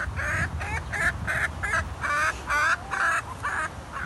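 bird, chickens clucking

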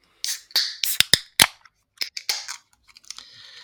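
food or drink, beer bottles being opened

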